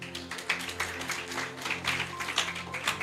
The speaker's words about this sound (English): Praise the Lord. Give the Lord a clap offering.